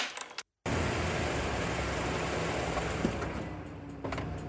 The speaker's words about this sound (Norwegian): Da bilen kom, gikk sjåføren ut av bilen og åpnet døren for dem.